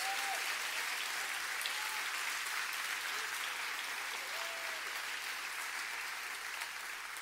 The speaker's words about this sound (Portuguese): Agora aplaude e glorifica Jesus.